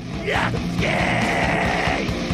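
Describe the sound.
A person imitates the loud, drawn-out yell of a man shouting with his lips pushed into a three-inch gap between two closed doors, a strained nasal bellow with a rising start that holds steady for about two seconds, forceful.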